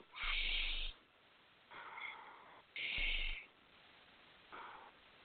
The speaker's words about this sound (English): So, if you breathe into your belly, and then you let it out, and then you do that same breath continuously without any breaks. So it kind of sounds like this.